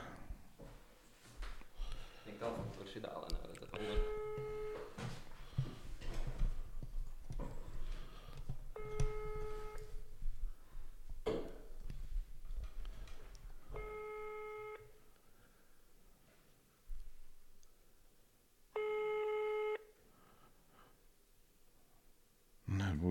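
A phone ringback tone repeats four times in steady, evenly spaced bursts, each a clear harmonic tone, with nobody picking up. Quiet background noise and faint shuffling fill the gaps.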